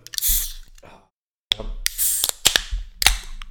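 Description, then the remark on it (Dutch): Beer cans being opened on a table: sharp metallic snaps with bursts of fizzing hiss, one at the start and several more after a brief silence. No one speaks. “wij kunnen deze aflevering niet maken zonder dat wij het volgende wat ik hier op tafel ga zetten openen”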